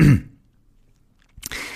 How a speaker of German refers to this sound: so einmal räuspern.